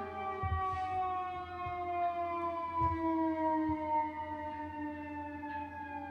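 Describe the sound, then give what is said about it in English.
A fire engine siren from the firehouse next door wails steadily and loudly, its rich, layered tone sliding slowly downward in pitch over several seconds, with a few low rumbling thumps underneath and no voices. “One day, we will not live next to the firehouse.”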